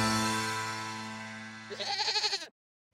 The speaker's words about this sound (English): Hey, look, what's that? It's a five legged goat.